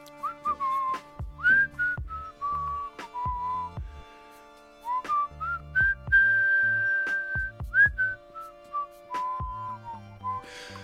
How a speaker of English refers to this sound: So I'm just going to whistle for about 10 seconds starting now.